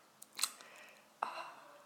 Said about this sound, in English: I'm gonna keep sipping on that, and I'm sure it's really gross to hear. So I'm gonna stop. So I'm putting that away.